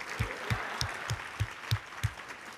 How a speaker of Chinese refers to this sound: 来，再给自己一个拍手吧，你没有放弃呀，yeah, 你继续愿意当着你自己，给自己掌声的时候，不要看我，闭上眼睛，给自己拍手，告诉自己说 “Good job”。